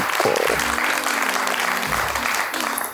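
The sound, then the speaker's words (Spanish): Sustained applause, a dense steady wash of clapping that stays loud throughout, with a faint tonal voice or hum running underneath. The applause is given for the film Matilda being in a top 5 list. “Le brindamos un aplauso a Matilda por estar en este top 5.”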